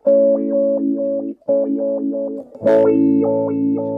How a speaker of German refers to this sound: da habe ich so ein Pedal, wenn ich da drauf drücke, dann kann ich die Gitarre auch sprechen lassen. Schaut mal, die kann ai ai ai sagen. Oder ei ei ei. Oder oi oi oi.